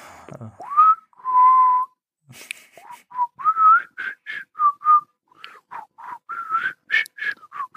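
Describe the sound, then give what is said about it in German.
Someone whistles a bouncy film theme tune, starting with a rising slide and a long held note, then a quick run of short, clipped notes. No talking, just the whistling. “Ich höre immer nur so ein Pfeifen hier so.”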